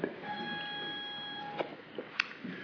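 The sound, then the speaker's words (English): A door entry buzzer sounds one steady electronic tone for over a second as someone arriving late is buzzed in, then stops, followed by a few sharp clicks and taps with no talking. “Kristen has been volunteering to uh, buzz people in”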